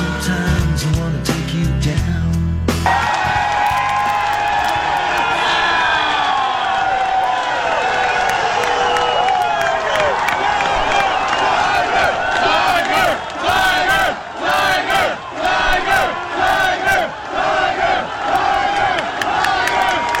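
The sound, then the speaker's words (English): After a short burst of music, a crowd of tens of thousands chants "Tiger" in loud, rhythmic unison, with voices rising and falling in repeated pulses over continuous roaring crowd noise. “only my only problem with the placement of that microphone and the way it sounds is that sounds like, uh, you know, a bunch of guys and maybe some guys in the background chanting Tiger, Tiger, as opposed to the reality, which was tens of thousands,”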